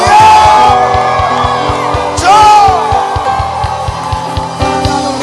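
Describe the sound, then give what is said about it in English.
A crowd of voices shouts and whoops together in a loud, sustained roar, with a steady thumping beat and bright tonal music running underneath. “If you are broke, shout. If you are rich, shout.”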